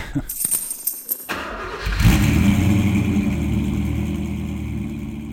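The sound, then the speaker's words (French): A yellow Peugeot 306 cabriolet's engine cranks and catches after a brief noisy moment, then revs up and settles into a loud, steady rumble. “J'ai une Peugeot 306 cabriolet de couleur jaune.”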